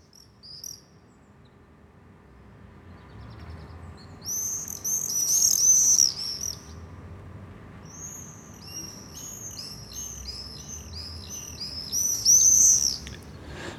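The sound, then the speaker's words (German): Common swifts give shrill, high screaming calls in repeated bursts, rising and falling in loudness, over a steady low hum with no one speaking, heard from a balcony overlooking quiet back courtyards in the Südstadt district. “Folge 39. Mauersegler.”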